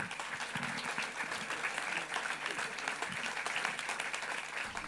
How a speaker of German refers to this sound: So, jetzt ein großer Applaus für den Protagonisten des Abends